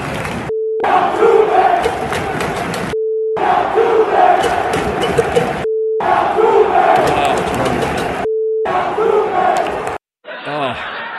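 A huge crowd of baseball fans at Yankee Stadium boos and chants in loud, rhythmic bursts, each burst cut off by a steady electronic beep tone, repeating four times before a short muffled fragment at the end.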